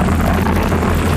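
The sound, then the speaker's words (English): A motorcyclist's denim jeans being shredded against the coarse bitumen road in a low-speed motorcycle crash: a loud, harsh, continuous grinding roar with a low droning undertone, steady for just over a second, with no voices. “This is the sound of a motorcyclist's jeans being shredded to pieces in a low speed crash.”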